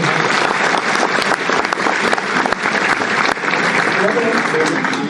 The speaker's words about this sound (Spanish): Un aplauso para